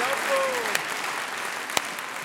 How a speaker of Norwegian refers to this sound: Så for mye applaus. Bravo!